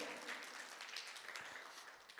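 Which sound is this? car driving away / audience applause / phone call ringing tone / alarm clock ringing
audience applause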